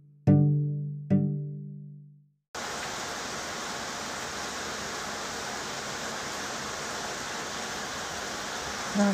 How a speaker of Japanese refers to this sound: この強い降 りの雨の音を聞いてたら昔失恋した時のことを思い出しました